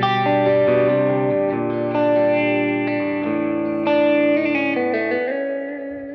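An electric guitar through an overdrive pedal set so the drive is not too much, strumming sustained, ringing chords with mild, gritty drive. The chords shift a few times and ring out steadily and loudly, with no talking over them.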